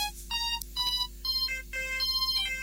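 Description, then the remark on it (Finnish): A mobile phone ringtone for an incoming call plays a bright, bouncy electronic melody in short repeating phrases with brief gaps, fairly loud, with no voices over it. “Jaha, nyt se joska soittaa. Vastataanpa puhelimeen tästä.”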